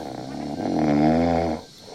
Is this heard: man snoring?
yes